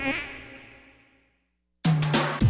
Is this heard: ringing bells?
no